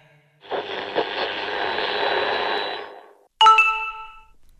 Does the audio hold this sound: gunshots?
no